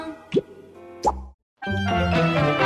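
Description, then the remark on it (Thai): Bubbles being blown make two distinct bubbly plops, each with a quick rising pitch, separated by a pause, then a brief silence before a busier stretch of bright, layered sound fills the rest. “ฟองปุดปุดปลาว่ายน้ำดำปุดปลาเป่าฟองปุดปุด เป่าฟองปุดปุดปองปองปองปุดปุดปุดปองปองปอง”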